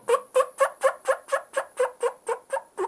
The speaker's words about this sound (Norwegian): Og en enda kåtere kalkun.